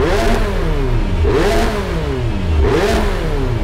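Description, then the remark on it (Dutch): A sports car engine revs hard through its exhaust, climbing and dropping in three quick, rhythmic bursts, loud, with a steady rumble between pulls and no voices. “Met kleppen, de vorm van de uitlaat en zelfs een mogelijkheid om onverbrande brandstof in de uitlaat te laten ploffen, kan je het geluid van een wagen naar je hand zetten.”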